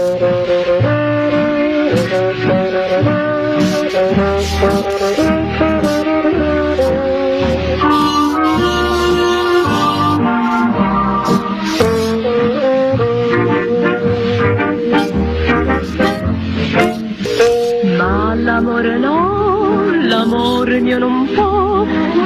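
A recorded Italian song plays steadily at full volume, with rich layered melodic lines, sustained notes and gliding phrases throughout, and no talking over the music.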